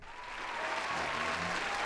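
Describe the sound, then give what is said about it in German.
A burst of crowd applause played from a soundboard, dense and steady, rising slightly in loudness over its two seconds with no voices on top, a classic canned clapping effect. “Okay, um das Soundboard kurz abzuschließen, hier ist natürlich ah, ja. der klassische Applaus.”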